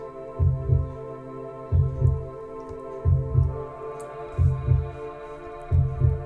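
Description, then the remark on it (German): A slow, steady heartbeat thumps in deep double beats, lub-dub, about five times, over a continuous low droning hum with no voices. “Lausche und schwinge dich ein in den Herzschlag des kosmischen Herzens.”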